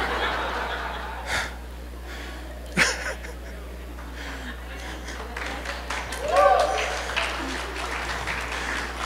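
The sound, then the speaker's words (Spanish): Light, scattered applause from a church audience during a sermon, a few claps rising briefly over a steady crowd murmur, with soft chuckles and a sharp clap or knock partway through. “Ese aplauso significa que no muchos están convencidos.”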